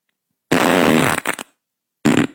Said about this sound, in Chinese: 我就听，我说哎呀妈呀，这是，哎呀妈呀，这是啥玩意儿？当时在我心里就减五分。小女孩放屁怎么这个东西？